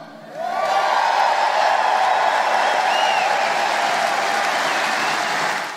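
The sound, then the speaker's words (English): A large crowd at a Donald Trump rally in West Virginia, welcoming him after an introduction by Governor Justice, bursts into sustained, loud applause mixed with cheers and shouts, a dense wall of clapping that holds steady for several seconds before starting to fade. “Thanks to this amazing crowd for this very warm welcome.”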